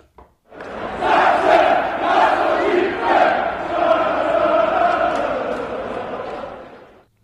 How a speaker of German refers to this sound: Äh, aber den Impfaufruf gab es auch nochmal von den Rängen. Hören wir da mal rein.